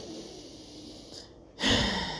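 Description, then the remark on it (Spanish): A deep breath from the belly (abdomen): a soft, airy inhale followed by a louder, rushing exhale lasting about half a second, with no talking. “no esa respiración cortita que llega acá al tórax y nada más, sino respiraciones profundas desde la panza, desde el abdomen.”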